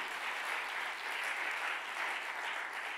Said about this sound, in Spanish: Déjame decirte, doy un aplauso fuerte.